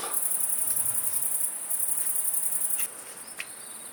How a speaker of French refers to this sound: c'est que les grandes sauterelles vertes couvrent presque la rivière, enfin le, torrent, le Maravel, qui est à une centaine de mètres d'ici. Alors je vais m'approcher maintenant d'une sauterelle verte à environ 1 mètre, 1 mètre 50.